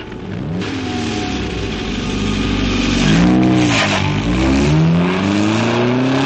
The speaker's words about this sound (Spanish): Las ruedas, chirriando, desconcertaron a los pájaros de la noche.